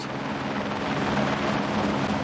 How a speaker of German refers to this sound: So klein ist der Landeplatz, dass der Hubschrauber gar nicht richtig aufsetzen darf. Der Hochvogel, 2600 Meter hoch, genau auf der Grenze zwischen Österreich und Deutschland, unweit von Oberstdorf.